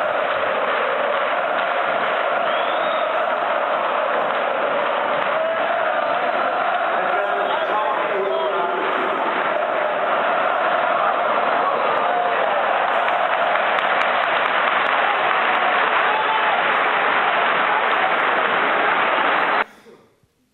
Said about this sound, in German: Dreißigtausend Fans hüpfen und singen gemeinsam. 30,000 fans hopping and jumping and uh, yeah, cheering together.